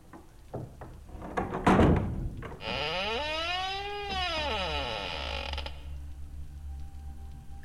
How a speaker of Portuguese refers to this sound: A porta se abre, mas ele não entra.